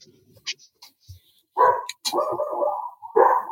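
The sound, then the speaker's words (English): Dogs bark loudly and excitedly in an agitated burst, several sharp barks running together after a few quiet clicks and rustles. “These dogs are going nuts.”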